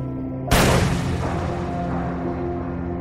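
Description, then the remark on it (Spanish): A policeman draws his pistol and fires a single sharp shot a few centimeters from a little girl's body. It cracks out loudly after a brief low hum, its bright burst decaying into a lingering rumbling echo. “El policía lleva su mano derecha a la cintura, saca el arma y dispara a unos centímetros del cuerpo infantil.”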